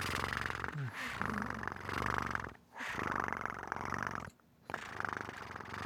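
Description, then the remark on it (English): A voice imitates a cat's purr with a steady, rumbling trill, broken by two brief pauses for breath before the vibrating purr resumes. “Could I get one of your adorable purrs?”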